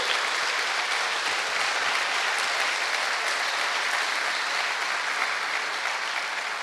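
Sustained audience applause given to God during a sermon, a dense steady wash of many hands clapping at an even, loud level for several seconds with no voices standing out.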